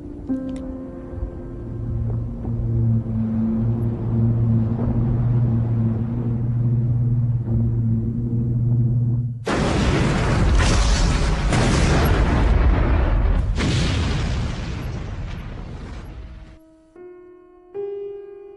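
The ship Virginia explodes after a stretch of sustained, low musical tones, a loud, rolling blast with several heavy booms echoing for seconds before the quiet tones return.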